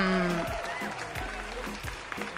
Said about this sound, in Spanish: Aplausos. Claro, queremos los aplausos. Los aplausos son de, demoran como cinco, están con delay. están con delay los aplausos.